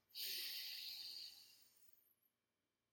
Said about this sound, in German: Also, lasst uns einen gemeinsamen Atmer nehmen und dann in das Thema der Liebe einsteigen. Wir atmen ein in drei, zwei, eins.